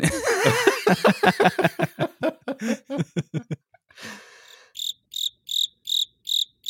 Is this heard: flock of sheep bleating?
no